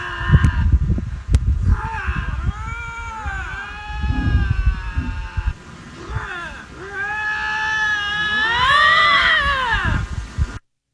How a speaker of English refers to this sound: Shut the hell up! Let the let the lynx talk. Oh, Shut the hell up and let the lynx talk.